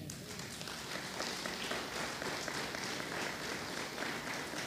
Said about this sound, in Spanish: Un aplauso al Señor.